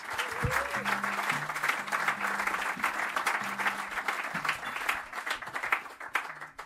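An audience at a club breaks into steady applause for the bassist, a dense wash of clapping hands that holds at a fairly loud level for several seconds, with low murmurs and faint tonal hum underneath.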